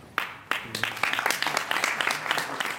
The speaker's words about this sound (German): Applaus